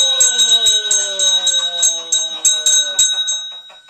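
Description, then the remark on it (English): The bell at Ben's Tackle Shack, a tackle shop at White's Landing on the Quaboag River, rung when customers make a purchase, is struck repeatedly in quick, uneven strikes, its bright metallic ring sustaining and overlapping before fading after about three seconds. Loud, with no talking. “Ben, can he ring the bell?”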